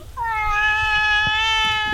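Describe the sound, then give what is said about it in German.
A single long, drawn-out cat meow, loud, holding a steady tone for nearly two seconds with a few faint background knocks. “Der mag keine Marmelade, sagt. Also Katze ja, und Obst, das ist nicht schon.”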